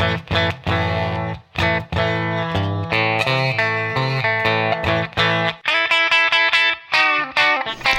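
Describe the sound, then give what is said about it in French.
An electric guitar with a clean, unprocessed tone plays a chugging chord riff, then higher choppy chords, as a clean reference tone, fairly loud with no voices. “Donc, voilà, là, voilà un peu le son clean de référence.”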